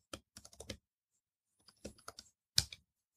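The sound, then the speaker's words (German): Quick bursts of keyboard typing as someone writes a message to a woman: a flurry of clacking keystrokes, a pause, then another short run and one last loud tap, with no voices. “Warte mal, ich schreibe ihr mal eben.”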